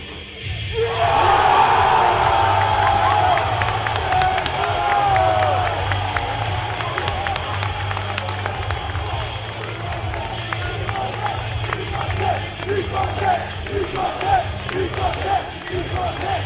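A loud wrestling arena crowd erupts into a roaring cheer, a crowd pop at the close of a wrestling event, that swells suddenly and keeps up as a dense, sustained wall of shouting and noise for the rest of the stretch.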